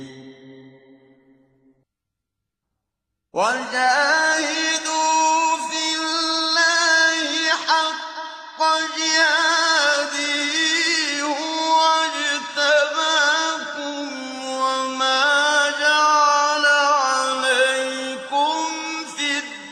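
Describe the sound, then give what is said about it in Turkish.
After about three seconds of near silence, a 1957 recording of Sheikh Minshawi reciting Surah Al-Hajj, verse 78, of the Quran begins: a single voice chanting in long, sustained, ornamented melodic phrases, loud, continuing steadily to the end. “şimdi buyurun Allah rahmet eylesin 1957 yılında ee, Şeyh Minşavi'nin okuduğu Hac suresinin 78. ayetini dinleyelim kardeşler.”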